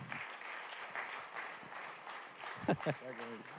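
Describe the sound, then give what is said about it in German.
An audience applauds to welcome a guest speaker with steady, dense clapping that fills the whole clip, while a voice speaks briefly over the applause near the end. “Ähm, heißt ihn doch herzlich willkommen, gebt ihm einen Applaus.”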